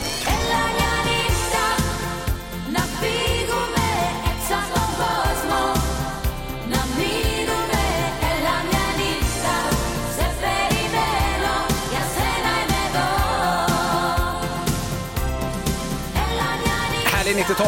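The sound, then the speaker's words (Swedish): A loud, full-band 1990s Greek pop schlager song, an old hit back on the Greek chart, plays continuously, with a steady driving beat, bright layered instrumentation and a dense 1990s-style dance-pop production throughout. “hittar vi en gammal 90-talsschlager faktiskt som gjort comeback av oklar anledning.”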